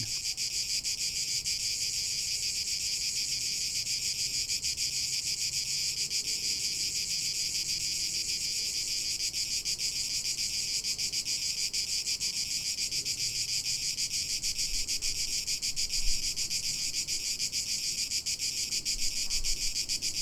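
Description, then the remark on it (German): A dense, unbroken drone of cicadas buzzes steadily throughout, a high shimmering wall of insect sound with no pauses and only faint low rumbles beneath it. “Interessant ist, dass das Zirpen der Zikaden nicht so laut und dominant wirkt, wenn man vor Ort ist”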